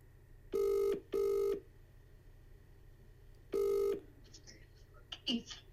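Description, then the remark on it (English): A telephone rings through a speakerphone as a man calls his wife: two quick bursts, then a pause and a third, each a steady harmonic electronic tone, loud over a low hum, followed by faint clicks and rustles. “Um, I just want to ring my wife again there just to see if she's how she's doing.”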